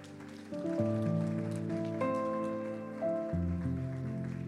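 A church audience applauds the Lord steadily, the dense patter of clapping blending under sustained keyboard or organ chords that shift every second or so, with no voices speaking.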